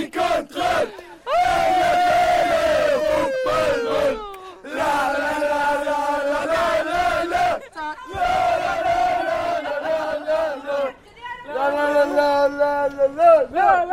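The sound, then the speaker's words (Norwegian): A stadium crowd screams and roars in loud, sustained waves of many overlapping high-pitched voices, swelling and dipping over fourteen seconds with brief lulls between bursts. “At eh, nå kjente jeg at eh, hvis det er sånne folk som er på stadion, altså, og man skal finne, finne, seg et mannebein, så kjente jeg at nå ble jeg veldig stresset av den skrikingen ja.”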